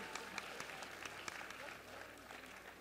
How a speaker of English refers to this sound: Give them a bigger round of applause, ladies and gentlemen. Amen.